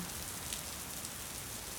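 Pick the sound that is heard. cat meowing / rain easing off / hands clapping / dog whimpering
rain easing off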